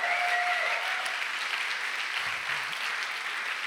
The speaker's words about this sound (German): Können wir da mal einen Applaus geben? Das einfach, ich, ich bin begeistert.